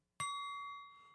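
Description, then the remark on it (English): A new ceramic Clase Azul Mexico tequila bottle is struck once, giving a sharp attack followed by a clear, bell-like ringing tone that sustains and slowly fades. It is fairly loud, with no voices. “And Beautiful this is the tone. sound of the, of the new bottle.”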